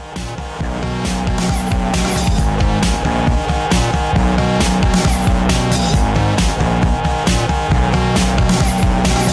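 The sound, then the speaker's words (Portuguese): An electropop song by a Brazilian band plays loudly on the Catupirai programme, driven by a steady, punchy drum beat under layered synth and bass lines; no voices are heard in this stretch. “a gente vai ouvir elas agora aqui no Catupirai.”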